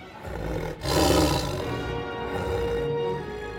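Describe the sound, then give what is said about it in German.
A tiger roars loudly, a deep rumbling growl that swells sharply after a brief dip and then sustains in a rough, throaty drone until the end. “Aus dem Boden, der sich prasselnd öffnet, steigt empor ein flammend roter Tiger.”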